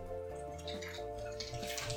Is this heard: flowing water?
yes